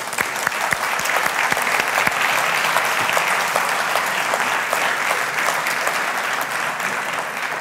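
A crowd in a church applauds loudly and steadily as a recognition award is presented, dense clapping filling the whole stretch with sharp individual claps standing out, no voices clearly heard.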